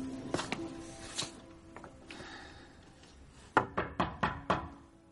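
A woman knocks on the door of a room: a few scattered knocks at first, then a quick, even run of five sharp, hollow raps after a short pause, over a faint steady hum.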